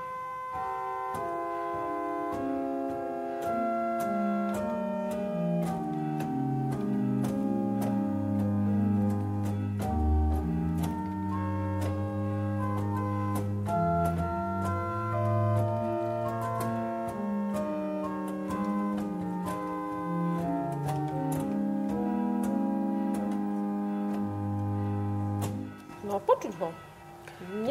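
A pipe organ plays a slow, gentle melody on its soft, string-toned 8-foot salicional stop, the quietest stop on this instrument, sustained notes shifting stepwise over a held bass, alone and quiet, ending with a brief rustle.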